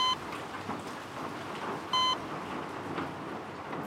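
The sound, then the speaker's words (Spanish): Steady rain falls throughout, a dense continuous hiss of drops on a surface, with one short electronic beep sounding partway through and no voices. “y nos concentramos en el sonido del agua.”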